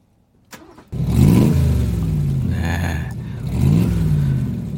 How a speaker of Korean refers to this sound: 네, 오토바이 소리입니다. 오토바이 소리. 이 오토바이 소리가 일부에 나가는 노래 중간에 들릴, 들릴 거예요. 이게 보물 소리입니다, 오늘.